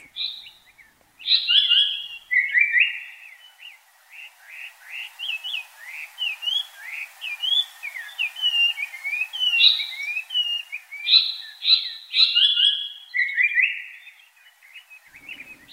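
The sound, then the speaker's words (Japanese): A Japanese paradise flycatcher sings steadily on Mount Takao, Japan, for the whole stretch: bright, rapid chirps and whistled phrases tumbling one after another, clear, with no voices and a quiet background. “高尾山の豊かな自然が三高町の命をつなぎこのさえずりがいつまでも聞こえることを祈ります”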